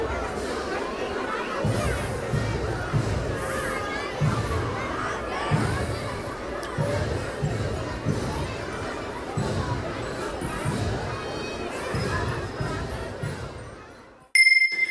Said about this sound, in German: So, das war der Martins Umzug gerade bei mir vor der Tür. War schön. Menschen sind weg.